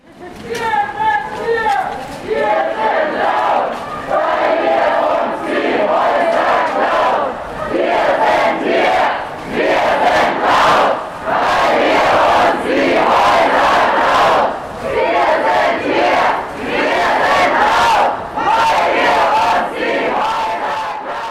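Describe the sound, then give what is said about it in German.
About 200 people marching through Freiburg city centre in the evening, protesting the demolition of occupied houses, shout angry slogans together in loud, rhythmic bursts, voices massed over steady crowd noise that barely pauses for about twenty seconds. “Rund 200 Menschen zogen gestern Abend laut durch die Freiburger Innenstadt, um gegen den plötzlichen Abriss der besetzten Häuschen in der Gartenstraße 19 zu protestieren.”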